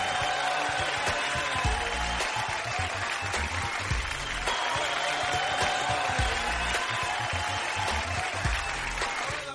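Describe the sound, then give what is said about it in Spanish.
Sustained, dense applause from a crowd fills the whole stretch, steady and loud with many overlapping claps and no clear pauses, with a faint musical tone underneath. “Hoy excelente programa, un fuerte el aplauso para ustedes.”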